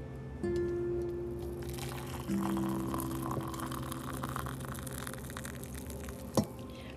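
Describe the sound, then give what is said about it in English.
Hot water pours steadily from a small red teapot into a cup for instant Nescafe coffee, a continuous hiss and gurgle over a low humming tone, ending with a sharp click; no one speaks. “And I love brewing my nice hot warm water in my cute red little teapot and this perfect ambiance that I have and burning my finger every single morning with my lotta bit of cream and my lotta bit of sugar.”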